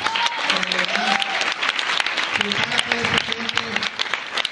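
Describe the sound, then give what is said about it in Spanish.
Sustained audience applause for the hosts of the event, a dense steady patter of many hands clapping for several seconds, with faint voices and a few whistle-like tones rising through the crowd noise. “anfitriones, por favor, un aplauso para los anfitriones.”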